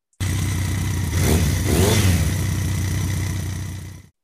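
A motorcycle engine rumbles loud, then revs up and back down in a quick surge midway before settling into a steady drone. No one speaks.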